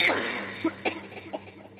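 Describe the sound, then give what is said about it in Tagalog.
A woman with a bloodied mouth coughs several times in quick, irregular, harsh bursts, over a faint low hum in the background. “Napasigaw ako, Sir Wilmore, nang biglang bumulaga sa harapan ko ang mukha ng babaeng duguan ang bibig at umuubo-ubo.”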